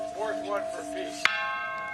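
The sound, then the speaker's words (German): A large peace bell, rung by Biden at the Irish president's residence: its ringing tone hums steadily, then a fresh strike lands sharply and leaves a bright, sustained resonance. Faint voices murmur underneath. “Zu Ehren des Karfreitagsabkommens läutet Biden beim irischen Präsidenten die Friedensglocke.”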